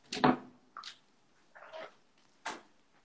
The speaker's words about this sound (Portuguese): Deixa eu só abrir a porta do cachorro aqui, senão teremos.